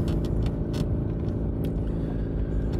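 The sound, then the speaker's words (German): Steady, loud low-frequency rumble of an old car driving, heard from inside the cabin, with continuous road and engine drone and occasional faint rattles and clicks. “Und schon wieder spreche ich zu euch aus einem fahrenden Auto.”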